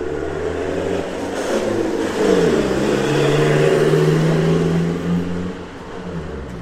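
The loud engine of a shared minibus (colectivo) rumbles, its pitch rising and falling as it revs and passes along a street, with a steady droning hum throughout and no voices.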